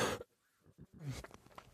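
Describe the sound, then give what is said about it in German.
A single sharp cough bursts out, followed by a rougher throat-clearing rasp, then quiet breathing and faint rustling. “Ein Huster.”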